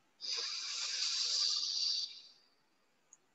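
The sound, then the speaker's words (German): A slow, steady inhale through the right nostril during an alternate-nostril breathing exercise, an airy hiss lasting about two seconds before fading out, with no talking over it. “Eine Runde noch, rechts wieder ein.”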